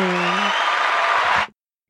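A dense, steady burst of applause lasting about a second and a half, loud and even throughout, with a brief low hum at the start before the clapping cuts off abruptly.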